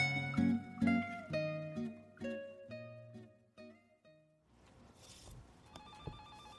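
An incoming call rings a phone in an office in the late afternoon of a cloudy day, with a melodic ringtone, a quick run of bright electronic notes that stops after a few seconds. A brief noisy gap follows, then another steady tone, clear with no voices.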